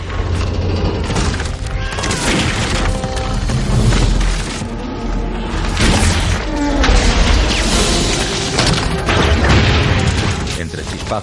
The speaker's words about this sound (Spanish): En ese momento, el entarimado de cubierta salta y el casco se agrieta al centro, justo bajo los pies de Lovejoy.